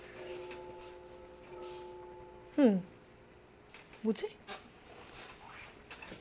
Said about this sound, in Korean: 제가 지금 창문을 열고 방송을 하고 있는데 갑자기 뒤에서 징 소리가 나가지고 누가 징을 쳤나 봐요.